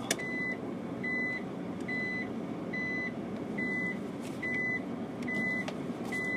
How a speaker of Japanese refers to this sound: 人んちの駐車場突っ込んでバックで切り返してるっていうね